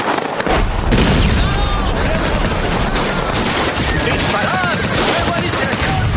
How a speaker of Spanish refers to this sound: Un grupo de soldados sublevados escondido en la nieve dispara contra las tropas de Capel.